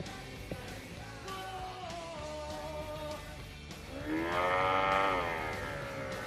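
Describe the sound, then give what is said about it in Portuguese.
A loud, drawn-out moo-like bellow swells up near the end, deep and harmonic like an ox lowing, after a stretch of quieter, muffled vocal sounds and background noise. “soltou um boi aí.”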